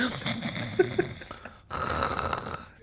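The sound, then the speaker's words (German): A person imitates the snoring of sleeping birds with a raspy, rattling breath, then a brief pause followed by another drawn-out snore-like rasp. “Die schnarchenden Vögel?”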